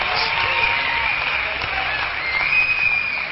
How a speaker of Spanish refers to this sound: Entiendo, entiendo, entiendo como que sus aplausos, pero aguanten, todavía no acabo. Esto todavía no termina.